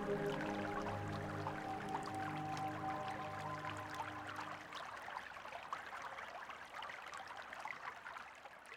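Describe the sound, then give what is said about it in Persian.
Water of a stream flows and trickles steadily, heard after crossing a bridge. A sustained low tonal hum sits underneath for the first half, then fades, leaving a continuous babbling of the stream. “بعد از گذر از این پل دوباره با جریان آب همراه میشیم.”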